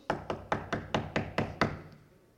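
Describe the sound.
Seven quick, evenly paced knocks on a door, solid, fading into a brief silence afterward with no voices.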